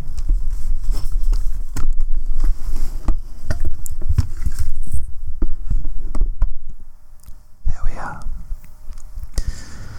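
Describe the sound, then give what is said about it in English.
A laptop being shifted around so its screen is easier to see: scattered knocks, scrapes and soft thumps over a low rumble, with a brief whooshing slide near the end. “I'm just going to move my computer so that the screen is more easily visible to me.”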